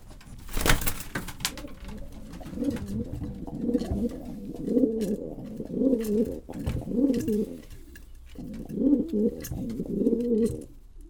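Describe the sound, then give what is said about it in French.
Pigeons coo steadily in low, rolling, overlapping calls that carry on with only a brief pause, with a sharp knock at the start and no voices. “Le pigeon, pour le mineur, c'est le symbole de liberté.”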